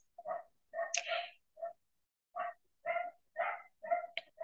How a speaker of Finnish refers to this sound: En tiedä, kuuletteko, että meidän koira haukkuu, pahoittelen sitä.